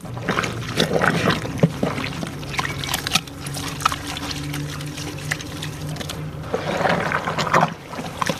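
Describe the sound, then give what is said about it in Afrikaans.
Wet squelching as soaked newspaper pulp for papier-mâché, made of only water and newspaper, is squeezed to get the water out, with water splashing and trickling out in irregular bursts over several seconds, and no one talking. “Ja, so dan squish ons dit, want die eerste hierdie water uit”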